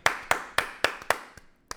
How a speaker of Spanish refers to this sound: Episodio número 3, gente. Un aplauso para eso. Número 10.